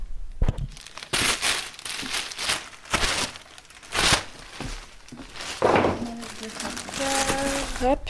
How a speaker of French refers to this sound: Mon objectif de faire son sac quand on part en montagne, c'est d'ouvrir un grand sac et de tout bourrer dedans.